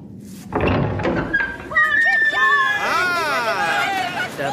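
door being opened

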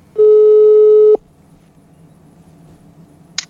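telephone ringing tone

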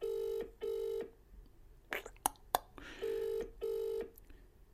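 phone ringing on speakerphone

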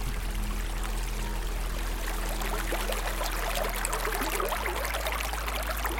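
babbling stream water

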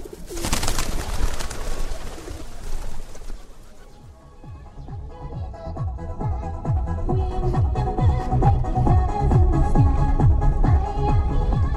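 pigeons cooing

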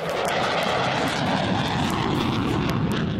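fighter jet taking off

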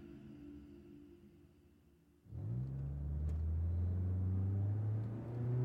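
car engine driving

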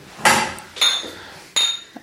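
glasses clinking

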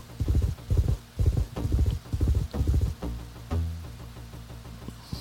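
horse hooves clip-clopping

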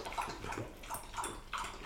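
pet drinking water

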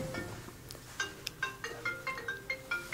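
mobile phone ringtone ringing

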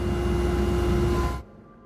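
helicopter taking off

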